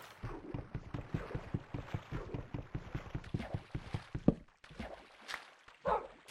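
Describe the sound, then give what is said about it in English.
A video game boat moves through water with a steady, rhythmic run of splashy paddle strokes, moderately loud, followed by a few scattered water sounds near the end. “Do I have a boat? I don't have a boat. Let's use a boat. First boat of the season.”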